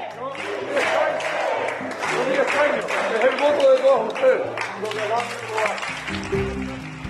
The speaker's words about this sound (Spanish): Estos son más aplausos.